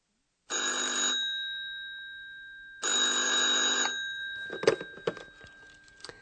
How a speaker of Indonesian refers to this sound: Telepon berdering.